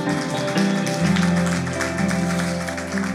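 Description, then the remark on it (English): Steady applause from a church audience for a pastor after his sermon, a dense wash of clapping that carries on throughout, layered over sustained keyboard chords playing underneath. “And I know, I know we're clapping for you, but that is not possible without the Holy Spirit.”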